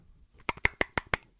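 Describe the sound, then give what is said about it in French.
A voice imitates a mocktail being poured: five quick, evenly spaced mouth clicks like glugs, sharp and fairly quiet, with no talking. “c'est quand on verse, c'est le shaker, et glou glou glou glou glou, c'est quand on boit.”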